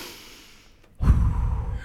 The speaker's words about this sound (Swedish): att det är lite mer, alltså man ska ha komma in i en speciell andning till exempel, om du har ett yogaandning. Att det är väldigt mycket så här, in med näsan och